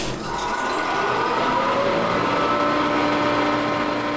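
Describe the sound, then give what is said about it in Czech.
The still-working hand-cranked filtration and ventilation unit of an air-raid shelter, cranked up to 40 times a minute to filter air for the whole shelter, whirs steadily: a dense mechanical drone with humming tones that slide upward in pitch as the fan spins up, loud and continuous with no voices. “až 40krát za minutu musíte skutečně tady otočit tou klikou, aby to stačilo pro celý ten kryt, pro filtrování toho vzduchu.”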